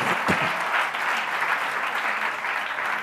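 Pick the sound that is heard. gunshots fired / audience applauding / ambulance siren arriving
audience applauding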